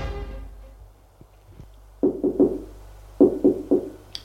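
Knocking on a mother's bedroom door in the morning: two quick bursts of three firm raps each, separated by a short pause, following a faint fading tone and a couple of soft taps.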